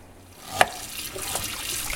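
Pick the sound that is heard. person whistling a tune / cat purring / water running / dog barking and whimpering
water running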